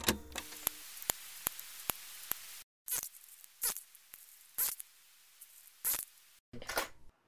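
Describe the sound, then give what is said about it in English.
Bees drumming, recorded by scientists: a quick, regular series of sharp dry taps, followed by several short raspy buzzing bursts separated by brief silences. Fairly quiet, with no voices. “Bees butt I mean, drumming.”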